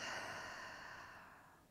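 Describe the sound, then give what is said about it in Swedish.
A long, soft breath pushed out through the mouth after breathing in through the nose, a steady airy whoosh that slowly fades over about two seconds, quiet with no talking, during a relaxation breathing exercise. “Och släppa ut genom munnen.”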